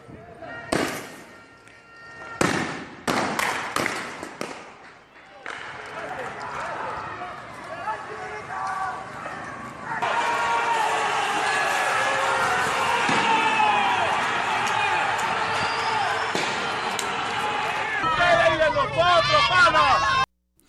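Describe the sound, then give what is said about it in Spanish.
Street protest noise in Caracas, Venezuela, on a Wednesday, as opponents and supporters of Nicolás Maduro's government take to the streets. A dense crowd roars with shouting voices, broken early on by several sharp bangs like firecrackers, then a sustained loud clamor of many people continues to the end. “Si te parece vamos a escuchar parte de, de las manifestaciones de lo que se ha vivido allá en Venezuela este miércoles miércoles.”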